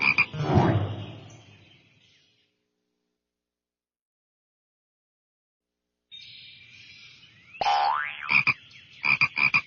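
A frog croaks loudly, falls silent for a few seconds, then lets out a quick run of sharp, ringing croaks with one rising chirp among them, as the frog eats a fly.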